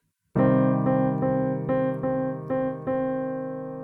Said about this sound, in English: Let me place the C minor 7 underneath it.